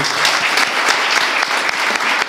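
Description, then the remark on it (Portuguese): An audience claps steadily, a dense, continuous patter of many hands at a fairly loud level, with no talking over it. “Peço uma salva de palmas para ele, por favor.”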